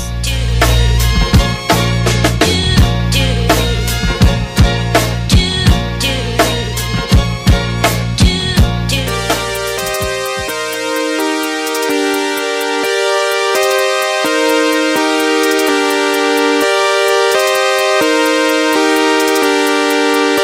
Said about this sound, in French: je vous fais entendre euh, une chanson qu'ils nous ont envoyée